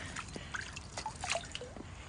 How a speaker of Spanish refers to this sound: Y ahora la esponja esta chiquita la mojo en el agua.